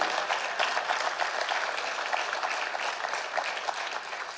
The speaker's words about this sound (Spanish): A ver, los que no aplaudieron, Tenga fe, hermano, y aplauda con los que están aplaudiendo.